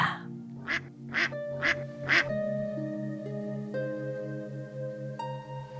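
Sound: duck quacking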